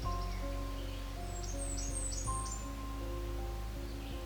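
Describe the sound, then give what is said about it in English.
A male Blackburnian warbler sings a short burst of very high, thin, rapid notes, repeated several times and fairly faint, over a steady low background hum. “The male songs are rapid and high pitched, such as this song, which sounds like Tisa, Tisa, Tisa.”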